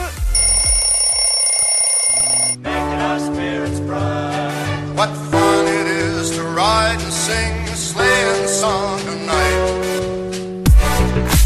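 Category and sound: household object, alarm clock ringing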